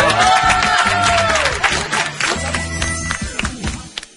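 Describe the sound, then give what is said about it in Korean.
A class audience breaks into dense, sustained applause as pizza ordered by the lecturer arrives, many hands clapping at once with some excited voices and cheers mixed in, fairly loud, tapering slightly toward the end. “이럴 땐 박수 치는 겁니다.”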